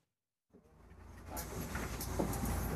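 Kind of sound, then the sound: vehicle, city bus driving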